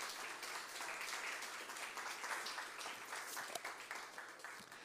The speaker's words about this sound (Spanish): Amén, démosle aplauso en gracias.